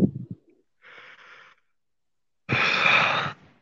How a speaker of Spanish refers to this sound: No sé, acabo de eh, bostezar.